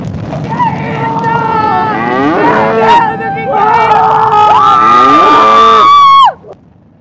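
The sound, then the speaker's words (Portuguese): Loud cow mooing: several long, drawn-out moos with wavering, sliding pitch run almost continuously for about six seconds, then stop abruptly. “Enchendo o cu da vaca, exato. Fazendo a vaca voar, cara.”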